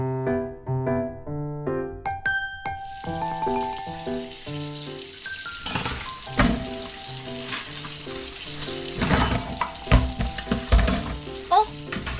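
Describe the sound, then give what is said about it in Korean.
After a short melodic intro, a steady rush of running water fills the scene as two people wash dishes together, with dishes clinking and clattering at an irregular pace; no one speaks. “아, 아줌마랑 이렇게 같이 설거지 하니까 진짜 좋다.”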